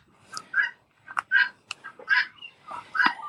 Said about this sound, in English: Is that the guinea hens? Those are guinea hens, and she knows how irritating guinea hens are to me, and she did that on purpose.